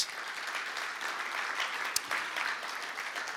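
An audience claps steadily, a dense, sustained wash of many hands at an even loudness, with one sharper clap standing out midway and no voices heard.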